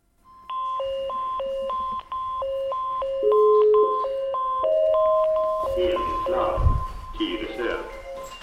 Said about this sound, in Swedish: och helt plötsligt går larmet.